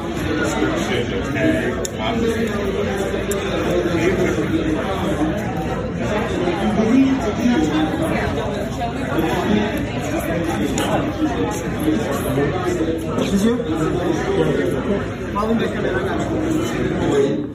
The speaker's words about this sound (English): here is traffic at the Apple Store this week's Just Listen